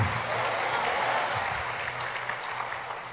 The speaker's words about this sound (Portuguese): Você pode dar uma forte salva de palmas?